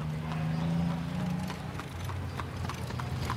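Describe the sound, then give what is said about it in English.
Horse hooves clip-clop in a steady rhythm over a low, continuous rumble of busy street traffic with wagons, automobiles and trolley cars, wheels and engines blending into a background hum, heard from high up on a roof above the street. No one speaks. “There is so much noise down there in the street, and I am up here so high that I don't believe they can hear me, thought the black cat.”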